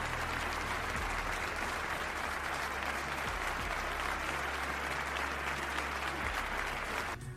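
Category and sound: crowd, applause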